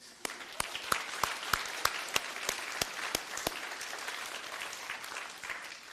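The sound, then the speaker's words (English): An audience bursts into applause, a dense wash of clapping with sharp individual claps standing out in a steady rhythm for the first few seconds before settling into a softer, even patter. “This feels like we should burst out in applause for what's happened this morning.”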